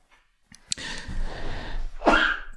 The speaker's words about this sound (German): Gesundheit.